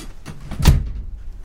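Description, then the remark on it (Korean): A single solid door of a house thuds shut, a short low-heavy impact with a brief rattle, followed by a faint lingering hum. “당황한 승아는 얼른 도로 문을 열려고 노력해 보았다.”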